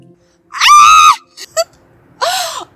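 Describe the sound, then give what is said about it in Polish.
A woman lets out two short, loud, high-pitched screams out in an open field, separated by a brief pause with a couple of small breathy vocal sounds in between. “W dodatku, kiedy już wydobyłam z siebie ten wrzask, to nie ukrywam, że byłam bardzo zaskoczona, bo dźwięk mojego głosu zaskoczył mnie.”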